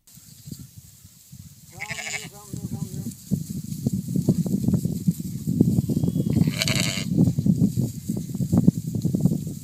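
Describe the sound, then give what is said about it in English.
A sheep bleats with a wavering cry early on while a Middle Eastern shepherd calls out to his sheep repeatedly in low, loud, rhythmic bursts, followed by another brief bleat amid outdoor noise. “Some of you guys probably have a chance uh, to watch it before, but this is literally a Middle Eastern shepherd and uh, how he interacts with his sheep and how they listen to his voice and how they discern his voice.”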